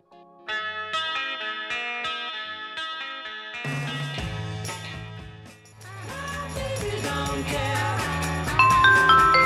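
A pop song plays, opening with bright, ringing guitar notes over a steady pulse before bass and drums come in, building into a fuller, louder band sound. No one talks over it.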